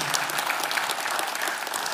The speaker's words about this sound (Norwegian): Jeg tror før jeg går videre, Kan ikke dere gi deres pastorpar en stor applaus?